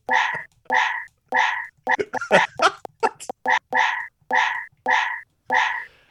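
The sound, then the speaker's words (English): Joe Biden's dog barks loudly and repeatedly, played from a soundboard, in a steady, even rhythm, about ten sharp barks, with a brief flurry of quicker, scrappier yaps in the middle. “I got a soundboard with Joe Biden's dog barking.”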